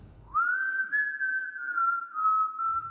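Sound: eerie whistling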